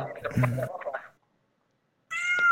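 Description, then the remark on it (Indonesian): A pet cat meows, a loud drawn-out cry with voices mixed in, then goes quiet for about a second before letting out another sharp, high-pitched meow. “Eta kucing saya kata. Kucing aing.”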